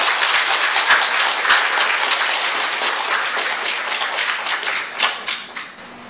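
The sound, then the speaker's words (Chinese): An audience at a lecture applauds to welcome actor Chen Jianbin, many hands clapping in a dense, sustained patter that holds strong for several seconds, then thins and tapers off toward the end. No one speaks. “掌声欢迎陈建斌先生。”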